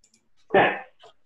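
A single button click, a short, fairly loud burst with a slight noisy tail, followed by a fainter, brief sound and otherwise near silence.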